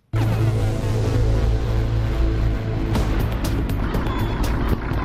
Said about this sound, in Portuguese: nós quando vamos no barco, a primeira coisa, claro, é ligar, ver se está tudo ok com a máquina, que é o, o motor do, do barco, preparar tudo para quando sairmos termos tudo mais ou menos orientado.